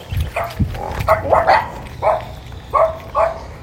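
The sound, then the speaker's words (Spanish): A dog barks in a series of about six or seven short, sharp barks, spaced irregularly over a few seconds, moderately loud, with a low background rumble. “Entonces ahí en lo que conversaba con el perro,”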